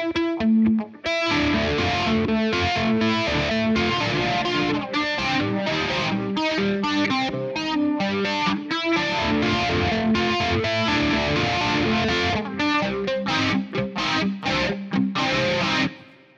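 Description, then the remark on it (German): Heavily distorted electric guitar played at full gain, a dense, saturated wall of sound with rapid chord changes, loud and continuous for the whole passage with no voices. “und spielst mal wegen Verzerrung, äh, komm, genau, wir machen das mal jetzt hier Vollbrett.”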